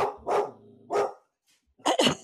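A dog barks four times in quick bursts, two close together, a third after a short pause, then a rapid double bark, loud with no talking.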